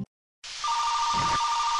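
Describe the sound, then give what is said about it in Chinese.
A telephone rings with a steady, high electronic tone that begins after a brief pause and holds over a hiss of background noise until the end. It is an early-morning call from a father. No one speaks. “所以非常意外的，有一天呢，他一大早就接到他父亲的电话。”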